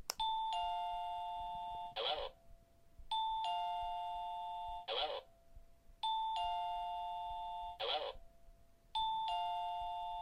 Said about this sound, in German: Jetzt halte ich die Fernbedienung einfach gedrückt. Ihr hört ja, wenn ich die drücke. Ich, ich halte sie jetzt also gedrückt und ihr merkt, er klingelt jetzt so lang, bis ich die Fernbedienung wieder loslasse.